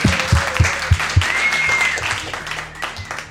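A burst of clapping from a small group, steady and fairly loud, with some hands beating heavier low thumps and faint voices and a whistle-like tone mixed in.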